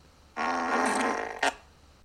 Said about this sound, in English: Thankfully, the Swedish police didn't take the matter to court on the grounds they couldn't prove the man had deliberately farted when leaving her apartment.